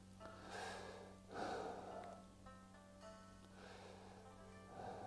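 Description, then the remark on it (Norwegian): Several slow, airy breaths drawn in and let out, the loudest a deep inhale in the middle, with no talking over them; someone breathing to refocus their attention. “Og så skal man fokusere på nytt igjen. Puste.”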